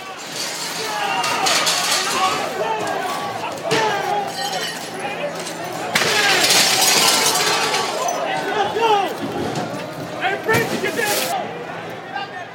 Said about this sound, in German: Für die Chaoten gibt es jetzt kein Halten mehr. Scheiben werden eingeschlagen, es wird geplündert